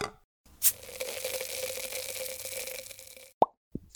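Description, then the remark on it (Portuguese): A few seconds of steady hissing, like a drink being poured or fizzing, then glasses clink sharply together in a toast, with a second lighter clink just after. No voices. “É, mas em primeiro lugar, vamos ao nosso. Brinde.”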